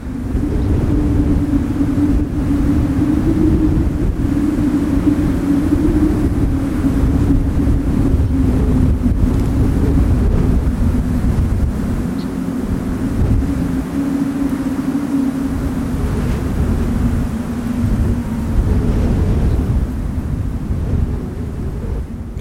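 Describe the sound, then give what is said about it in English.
Wind whistles over plowed rows of dirt in cotton fields in West Texas in a steady, low, slightly wavering tone, carried on a loud, constant rumble of gusts. It runs unbroken the whole time, with no voices. “out by the cotton fields out in West Texas because you know there's all these rows of dirt that they've plowed up for the cotton, and it creates this perfect, almost harmonica that the wind huh. blows over and just whistles on top of.”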